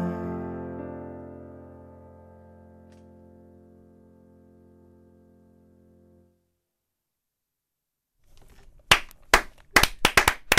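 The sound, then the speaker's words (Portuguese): A sustained musical tone rings and slowly fades to silence, then loud hand clapping breaks in, a quick uneven run of claps over the last couple of seconds; applause on an Antena 3 radio show. “Vai buscar a ovelha também para bater palmas”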